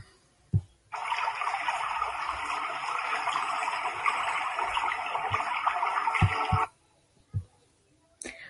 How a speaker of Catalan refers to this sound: a l'escoltar la pluja relaxant quan plou.